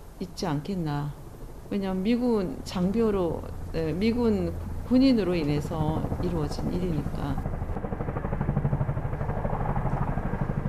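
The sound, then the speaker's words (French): A steady engine drone sits beneath someone talking, then swells into a loud, rhythmic rotor thumping as a US military helicopter passes overhead after the voice stops; helicopters and planes regularly disturb the calm of a small house in a Korean village by an American base. “comme pour rappeler l'omniprésence américaine, le bruit des hélicoptères et des avions, donc le SAM, viennent régulièrement troubler le calme qui règne dans la petite maison.”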